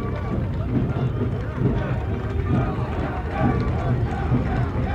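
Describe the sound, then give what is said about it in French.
Tunisians in a crowd cheer and applaud as Bourguiba, Michel Debré and Jacquinot pass slowly before troops rendering honours. A steady wash of clapping and voices at moderate volume carries on without a break for the whole stretch, with a faint low rumble beneath. “Monsieur Bourguiba, monsieur Michel Debré et monsieur Jacquinot, passent lentement devant les troupes qui rendent les honneurs, tandis que quelques applaudissements sont lancés de l'endroit où se trouvent euh, les Tunisiens.”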